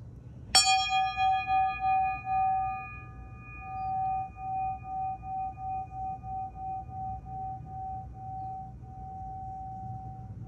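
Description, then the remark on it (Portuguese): A single small bell is struck once and left to ring, its clear metallic tone shimmering and slowly fading over several seconds against a low background hum, with no voices. “Como esse sino tem esse poder, gente do céu, de chegar na alma da gente.”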